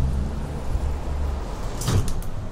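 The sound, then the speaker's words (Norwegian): The door into a newly renovated restaurant is opened on a Monday afternoon: a brief rattling swish near the end over a steady low rumble of background noise, with no one speaking. “jeg åpner døren inn til den nyrenoverte restauranten.”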